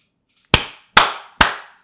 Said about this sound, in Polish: Dobrze, dobrze, to klaszczemy.